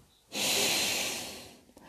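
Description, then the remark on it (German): A woman breathes deeply in and then out while a doctor listens to her lungs with a stethoscope: a loud, airy rush that starts suddenly, holds for more than a second, then gradually fades away. No one speaks. “Sie atmet zuerst tief ein und dann wieder aus.”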